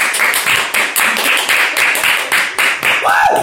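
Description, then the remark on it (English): Steady applause for a guest, hands clapping at a quick even pace for a few seconds, with a brief vocal sound rising near the end. “Uh, we have, as always, the obligatory applause for our, for our guests.”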